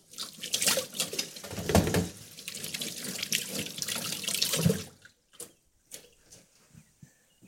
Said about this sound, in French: Je me lave tout de suite les mains.